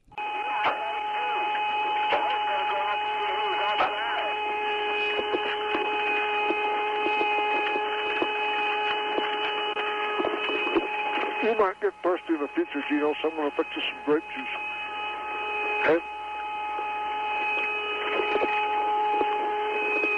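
An eerie NASA radio recording of 'Moon music' linked to astronauts in 1969: steady layered droning tones with a hiss of static, broken midway by a burst of warbling, swooping whistles and scattered clicks, with no one talking.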